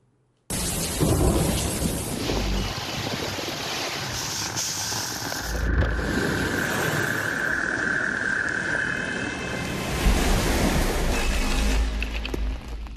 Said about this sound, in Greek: Είμαστε στην Αγία Παρασκευή εδώ στη Σκιάθο. Το αυτοκίνητο έχει εγκλωβιστεί. Στο έλεο τη Θεομηνία και οι σποράδε. Το νησί τη Σκιάθου δοκιμάζεται από τα ακραία καιρικά φαινόμενα. Οι δρόμοι και τα σοκάκια του νησιού μετατράπηκαν σε ποτάμια